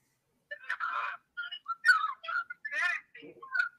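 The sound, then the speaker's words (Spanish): An incoming-call phone ringtone plays a quick, chirpy melody of warbling, whistle-like notes in short bursts with brief gaps, fairly loud, with no one talking over it. “Uy, nos están llamando, mano.”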